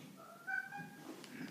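A cat outside a door meows in a drawn-out, tonal wail, steady and moderately faint, with low background rumble and no talking.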